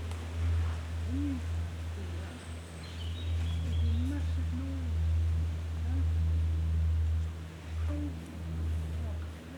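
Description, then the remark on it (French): A steady, low engine drone of an airplane hangs throughout, with a few faint chirps drifting over the constant hum. “Tiens, tu as vu, tu entends l'avion là Ouais.”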